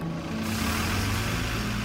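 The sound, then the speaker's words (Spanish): A bus engine rumbles steadily, a low droning hum with a broad wash of mechanical noise, holding constant and fairly loud throughout with no voices, as someone boards the bus on a cold day with snow falling. “Abrazo a Lesia y subo al autobús.”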